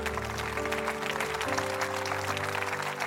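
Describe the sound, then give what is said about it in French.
A church audience applauds during a French-language sermon, a dense crackle of many clapping hands lasting about three seconds, with sustained low instrumental chords holding underneath. “Comment un bon applaudissement.”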